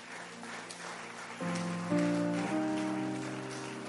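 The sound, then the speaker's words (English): An audience claps in a steady, dense patter throughout, and sustained keyboard chords enter partway through and change a couple of times beneath the applause. “Oh, come on, clap your here”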